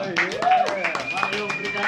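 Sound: audience clapping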